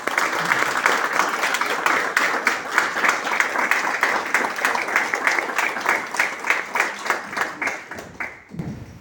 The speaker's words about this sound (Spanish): Un aplauso para ellos.